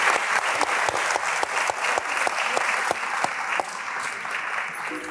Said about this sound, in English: Let's give uh, Tong a round of applause once more. Thank you very much.